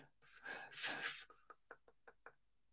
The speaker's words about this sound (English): Ooh, man, I was gonna sneeze. I was gonna sneeze.